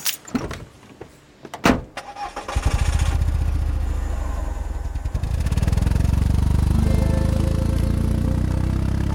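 An old car engine cranks with a few clunks and sputters, catches, then settles into a steady low rumble that swells louder as the car pulls away and drives a few laps around a roundabout.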